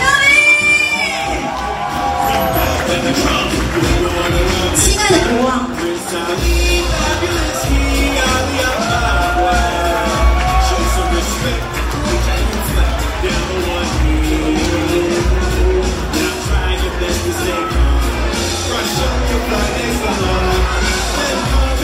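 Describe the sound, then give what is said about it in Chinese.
A crowd cheers and shouts loudly and continuously for about twenty seconds, with high-pitched whoops rising above the din and a voice briefly calling out near the start. The crowd cheers as the king of the 'Happy Country' arrives at a show. “这就是我们幸福国度最重要的国王来了，欢呼声！”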